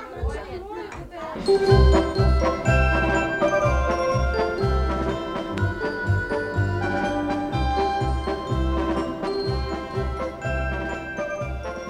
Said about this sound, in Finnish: Hyvät katselijat, nyt soittaa pikkuoravien orkesteri synttärimusiikkia, jonka on noita nokinenen kunniaksi sepittänyt orava nappisilmä.